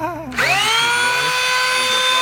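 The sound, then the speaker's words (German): A high-pitched power tool spins up abruptly and whines steadily, its sharp tonal drone holding loud and constant as it grinds down a plastic saddle. “Das ist zu laut und nervig. Aber mit einem Kunststoffsteg äh, geht es wahrscheinlich relativ schnell.”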